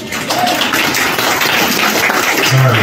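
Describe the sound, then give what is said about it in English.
An audience at Punchlines applauds a performer in a dense, steady wash of many hands clapping, loud and sustained throughout without fading, and no voices come through over it. “Uh, it's, I mean, I appreciate the applause, but it's really just a formality at this point.”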